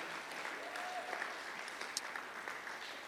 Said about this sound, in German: vielleicht können wir unseren Freunden in Erlangen online auch nochmal trotzdem nochmal einen riesen Applaus geben.